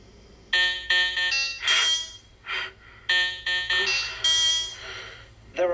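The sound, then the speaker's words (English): Two quick series of bright, electronic alarm clock beeps, each a run of three or four rising tones with a short gap between the series. Loud, with no talking over them. “his fucking alarm clock beeps his, yeah that same tone”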